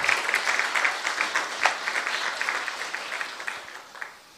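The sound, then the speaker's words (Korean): A church audience applauds its ministers after their song of praise, a dense, steady patter of many hands clapping together for about four seconds before it quickly tapers off. Nobody speaks over it. “다시 귀한 우리 사역자들을 위해서 큰 박수로 다시 한번 축복하겠습니다.”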